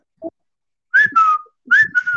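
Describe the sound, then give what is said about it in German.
A person whistles a bird call, two pairs of bright, sliding high notes with a short pause between them, after a brief soft sound at the start. “Der mhm. konnte so Vogelgeräusche machen.”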